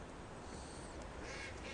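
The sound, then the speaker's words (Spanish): Ducks quack in harsh, nasal bursts over a steady wash of background noise, with a couple of louder calls toward the end; no one speaks. “A mí me gustan mucho los patos.”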